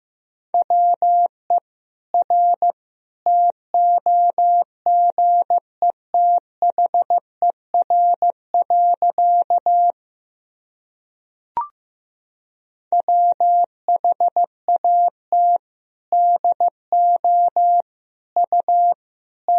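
Morse code tones at about 15 words per minute sending practice sentences of common words and abbreviations: a steady, mid-pitched beep keyed in quick dots and dashes, briefly pausing with a faint click before the sending resumes, no voices.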